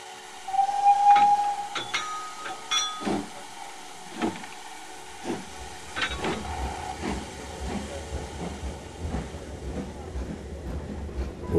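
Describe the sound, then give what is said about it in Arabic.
A train starts moving on rails in Yugoslav territory after a stop on a cold night, once snow has been cleared from the tracks at daybreak. Metallic clanks and a brief whistle-like tone give way to a steady low rumble with irregular clacking, with no voices. “بعد أن تحرك القطار بدقائق قليلة”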